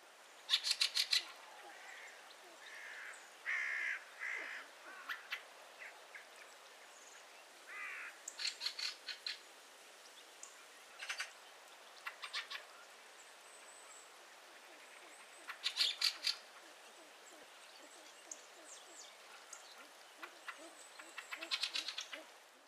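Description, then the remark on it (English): Harsh, dry chuck calls of a fieldfare, given in short clustered bursts with pauses between, clear over a faint outdoor background, with a few higher squeaky notes mixed in. “is very distinctive and has been likened to that of a chicken with a chuck, chuck, chuck, which carries very well and can often be the first indication of a flock of fieldfares passing high overhead.”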